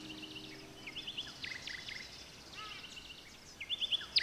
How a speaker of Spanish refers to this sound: Por cierto, ¿escuchaste al pájaro que acaba de pasar volando? Sí. Intenta girar y centrarlo en tus oídos.